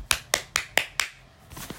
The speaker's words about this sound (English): The audience clapped.